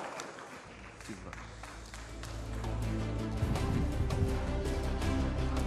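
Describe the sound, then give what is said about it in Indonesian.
An audience at an Indonesian vice-presidential debate claps steadily as candidate number two, Gibran Rakabuming Raka, is invited to present his vision and mission, a dense crackle of many hands that grows louder partway through, with crowd murmur and a low droning hum underneath. “Mohon tenang, kami butuh kerjasamanya. Nanti ada waktunya tepuk tangan.”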